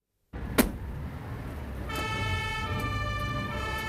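A fire engine convoy drives past on its way to an emergency call with its siren blaring, a steady wailing tone rising out of rumbling traffic after a sharp knock at the start, with no one speaking.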